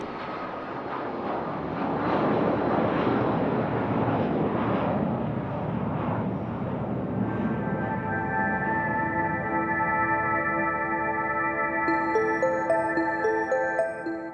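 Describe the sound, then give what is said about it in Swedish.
A steady, loud airplane engine drone of a flight to Sweden fills the space like cabin ambience, a broad rumbling roar that shifts midway into a sustained whining hum with tonal layers. No one speaks. “Hon stiger på flygplanet mot Sverige.”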